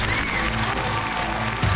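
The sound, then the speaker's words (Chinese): An audience claps steadily to welcome the next guest, a woman from Dalian who sings laodan opera roles: a dense, continuous patter of many hands with some crowd noise mixed in and a faint tonal hum underneath, holding at an even level throughout. “来，掌声欢迎下一位来自大连的唱老旦的美女，来，掌声欢迎她。”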